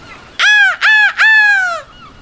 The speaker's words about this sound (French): Un matin, la mouette lui crie